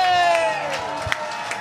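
A crowd cheers and applauds, with a long, drawn-out shout that falls in pitch over steady, rhythmic claps or thumps, fairly loud throughout.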